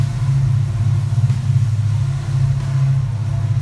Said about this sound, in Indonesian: gila ya kereta ini lewat terus ya kaya itu yang punya batu bara men